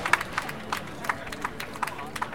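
A small group applauding: scattered, uneven claps, crisp and fairly quiet, with no steady rhythm, lasting a couple of seconds.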